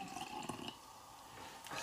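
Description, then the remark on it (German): A sparkling drink is poured with a steady liquid rush and a soft fizzing hiss throughout, moderately quiet, with no voices. “Das sprudelt aber hier.”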